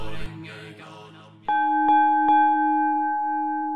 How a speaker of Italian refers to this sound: Intervallato ogni tanto dal suono di un gong in realtà una campana tibetana.